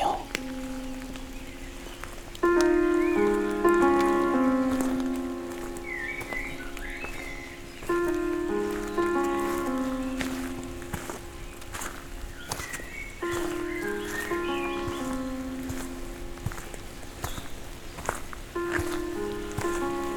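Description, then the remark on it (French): Steady rain patters over an outdoor mountain-trail ambience in the Pyrenees, on a path rising into mist, with occasional faint bird chirps, while a gentle repeating melody of sustained tones plays on top throughout. “je vous amène parcourir avec vos oreilles ces merveilleux sentiers Pyrénées.”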